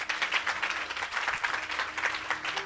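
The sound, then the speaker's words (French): A church audience claps steadily for a few seconds to praise the Lord, the dense patter of many hands holding a fairly even loudness throughout with no voices standing out. “Acclame le Seigneur pour ta vie.”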